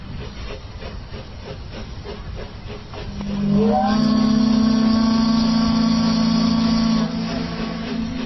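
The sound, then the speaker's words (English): A steamship reaching the end of a voyage around the Pacific Northwest: its engine chugs rhythmically amid a steady hiss of steam, then a loud, deep steam whistle blows one long blast for several seconds before cutting off, leaving the hiss behind. “That sound means the steamer Columbia has reached the end of another thrilling voyage around the Pacific Northwest.”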